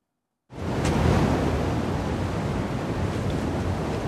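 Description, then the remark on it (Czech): A loud, steady roar of the flooded Vltava River rushing through Český Krumlov, carrying roughly ten times more water, begins abruptly after a brief silence and continues unbroken and dense, with no voices over it. “Řekou Vltavou tady v Českém Krumlově teď stále protéká zhruba desetkrát víc vody”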